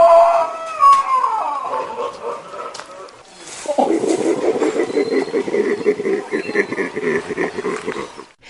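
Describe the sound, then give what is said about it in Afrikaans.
A baboon's mating call: a loud, drawn-out cry sliding downward, followed by a long run of rapid, harsh grunting barks. “En so gepraat van die paartyd, so klink die dekroep van 'n babojaan.”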